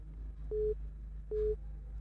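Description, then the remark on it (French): Two short, steady beeps of a phone line's busy tone after a caller disconnects because her phone credit ran out, evenly spaced with a pause between, sounding over a low electrical hum with no one talking. “Elle est partie. Amen. Oh, son crédit n'était pas suffisant.”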